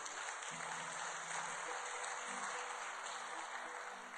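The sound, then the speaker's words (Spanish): A church audience applauds for God, dense rapid clapping blending into a continuous roar that holds at an even level for several seconds, with faint cheering or voices beneath. “Denle un aplauso bien fuerte a nuestro Dios.”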